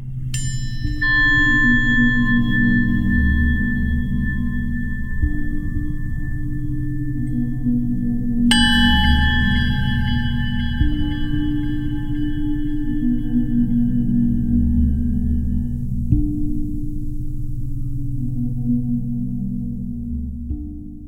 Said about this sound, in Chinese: 像是试着用金属链条划过大小不一的玻璃杯，敲打三角铁。再将三角铁放入装有水的玻璃盆中